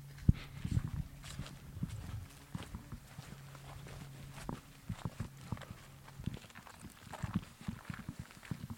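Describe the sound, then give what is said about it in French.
Steady footsteps crunch over dry ground outdoors in a vineyard, a series of irregular steps with a low background hum and faint ambient noise, no one speaking. “On continue notre tour On marche un peu”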